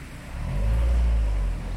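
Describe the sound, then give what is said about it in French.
A car drives past at a police checkpoint, its deep engine rumble swelling to a peak mid-pass and then easing off as it moves away. No one speaks. “pas une voiture, pas un camion n'échappe au contrôle, qui est rapide, car tous les conducteurs ont préparé l'attestation.”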